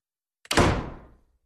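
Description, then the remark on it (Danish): A single door swings shut with a quick latch click and a solid thud that rings out briefly before fading into silence. No voices accompany it. “det skulle have været en dør, der gik op, Sissel, og ikke en dør, der lukkede”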